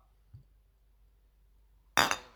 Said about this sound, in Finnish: Kaadetaan tänne tuoppiin. Ei kyllä kuohu paljon.